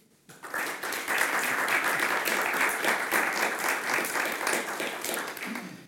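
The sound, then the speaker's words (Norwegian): An audience at a debate event at the University of Bergen, recorded for radio, bursts into applause, many hands clapping in a dense, steady crackle that rises quickly, holds for several seconds, then begins to taper off at the end. “Det krever at jeg gjør mitt beste for å holde tidsskjemaet på én time og at dere som publikum gir oss en liten applaus ca. akkurat nå.”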